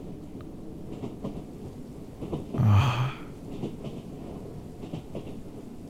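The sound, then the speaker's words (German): A continuous stormy wash of wind and rain, with a louder rumbling surge of window shutters rattling in the wind swelling up midway before settling back into the steady blustery background. “Und draußen windet so und es rattelt an deinen Fensterläden.”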